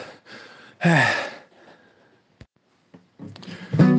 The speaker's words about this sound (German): Oh, Moment mal, ganz kurz atmen.